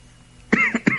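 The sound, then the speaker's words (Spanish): A quick burst of fairly loud coughs, two or three harsh hacks in rapid succession after a moment of near silence, with no one talking. “Qué bueno que tosí y no se escucha.”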